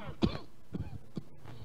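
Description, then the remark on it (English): A person's nagging cough repeats in short, harsh bursts: one strong hack followed by two or three weaker ones at uneven intervals, moderately loud, with no talking. “That word is like the way the way that I'm coughing, right?”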